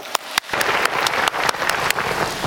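An audience breaks into applause to welcome a professor, a steady wash of many hands clapping with a few sharper individual claps standing out, building after a couple of early isolated claps and continuing at an even level.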